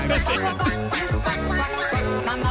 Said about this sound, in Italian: Questo è il ballo del qua qua, di padre.